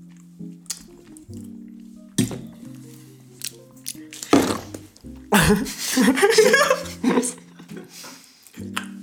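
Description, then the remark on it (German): Squishy ASMR mouth sounds of someone chewing food, with several wet, smacking bursts that grow busier toward the middle, over a low steady hum. “Äh, eigentlich hätte da nur so ein Minecraft-Essen-Sound kommen müssen, Digga.”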